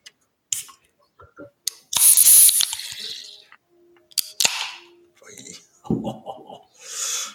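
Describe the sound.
A sharp metallic crack followed by a loud, sustained fizzing hiss as a drink can is opened, with a few clicks and handling sounds, then brief voices and another short hiss.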